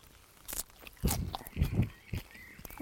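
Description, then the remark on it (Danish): Crisp bites into a lemon-yellow Citrine daylily flower followed by moist, crunchy chewing, a few irregular crunches in quick succession with soft rustling between them, no talking. “Men jeg smager altså på en, en citrongul daglinje, og den smager vildt godt.”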